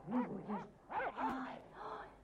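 A dog named Tuks barks in a few short, tonal bursts with brief gaps between them, moderately loud, with no other sounds around it.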